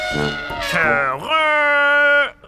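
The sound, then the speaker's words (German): A human voice imitates an elephant's trumpet: a wavering, rising call that slides up into a long, steady, brassy held note lasting over a second, loud and alone. “Elefanten haben einen langen Rüssel, um sich zum Beispiel Sand auf den Po zu werfen oder Wasser. Und natürlich tröten sie damit.”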